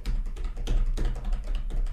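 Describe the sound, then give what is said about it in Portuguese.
Fingers drum rhythmically on a school desk, a quick run of crisp taps repeating for a couple of seconds with no one talking. “Aí é, eu ficava assim na minha mesa, ó, na, na mesa do colégio, tipo.”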